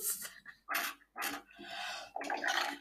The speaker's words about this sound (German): Das, war das für ein Geräusch. Ich habe mein Mikrofon, ich habe mein Mikrofon geblasen. Mein Mikrofon.